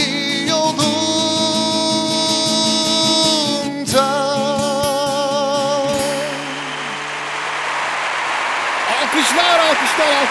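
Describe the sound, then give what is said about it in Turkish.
A sustained musical chord rings out and fades, then a crowd breaks into steady applause, a dense wash of clapping with a few voices cheering near the end. “alkışlar, alkışlar, alkışlar.”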